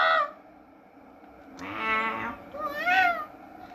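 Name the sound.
cat meowing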